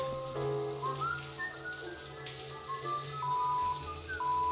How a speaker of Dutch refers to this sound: staat onder de douche, je ontspant. Alle problemen glijden van je af.